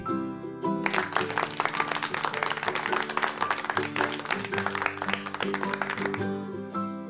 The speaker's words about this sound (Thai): เมื่อชายหนุ่มเห็นว่า เด็กๆนั้นปรบมือกันแล้ว ก็รู้สึกโล่งอกที่เด็กๆสามารถเอาชนะความกลัวของตัวเองได้แล้ว